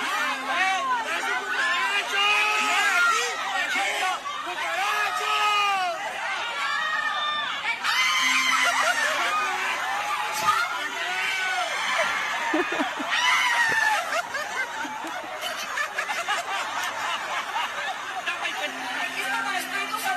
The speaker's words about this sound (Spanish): O sea, toda la gente le gritaba que tenía una cucaracha y ella no se daba cuenta.